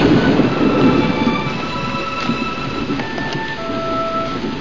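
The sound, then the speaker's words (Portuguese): Heavy rain pours steadily with a deep, continuous rumble of thunder underneath, loud, while faint high whistling tones drift through the storm noise, in a film scene where a letter from Dr. Brown is opened in the rain. No one speaks. “E ele lê a carta, inclusive ele abre a carta ali no meio da chuva, que eu acho uma coisa bem temerária e tal.”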